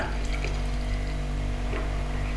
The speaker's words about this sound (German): Ja, das Gießen ist jetzt nicht mehr ganz so tragisch, weil mit der Kanne ist immer noch besser als mit dem Wasserkocher. Ich halte jetzt erstmal den Knopf gedrückt und dann gießen wir einfach mal ein bisschen Tee rein.